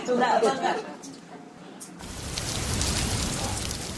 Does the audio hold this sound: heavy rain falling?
yes